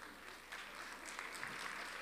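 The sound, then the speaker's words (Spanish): A short burst of scattered applause, steady clapping from several people at a fairly low level, with faint chatter underneath. “Ah, ya sé por qué está aplaudiendo usted.”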